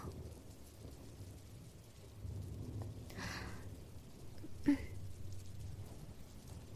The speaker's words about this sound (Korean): 비에 섞여가는 수많은 소리에 기분이 좋아졌어요. 편안한 느낌이에요. 저는 비가 정말로 좋답니다.